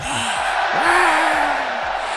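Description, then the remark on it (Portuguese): A dense crowd roars and cheers continuously at a steady, loud level, with a few rising whoops and shouts cutting through the wash of noise. “Coloca uma torcida aí.”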